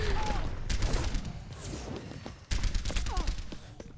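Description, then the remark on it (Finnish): Rapid bursts of video game gunfire crackle almost nonstop over a dense, noisy background, loud, as a player shoots at the people being interviewed in the game, with a brief dip before the shooting surges again, plus a few whistling effects. “Tää on mut eka kerta, kun mä ammun haastateltavia.”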